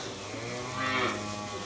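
A heifer in a cattle barn lets out a drawn-out moo, swelling to its loudest midway, over a steady hum of barn noise. The call is clear, with no talking.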